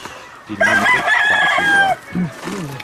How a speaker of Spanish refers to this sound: Son gallos excelentes, ¿eh?